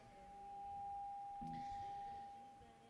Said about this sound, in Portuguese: Eu anotei uma, uma frase aqui, está com microfonia.